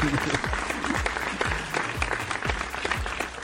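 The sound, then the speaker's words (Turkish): Steady applause from a group fills the whole stretch, dense clapping with scattered sharper claps standing out, moderately loud, with no speech over it. “Alkışlar size.”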